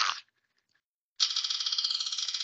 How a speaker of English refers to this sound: So we're gonna spin that. Check it out. Let me get on my phone here and spin the spinner.